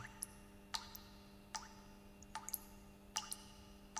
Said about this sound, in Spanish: hay un silencio opresivo en prácticamente esta sección de la morgue que solamente escuchas el sonido de unas luces fluorescentes y como un goteo distante de algún grifo defectuoso.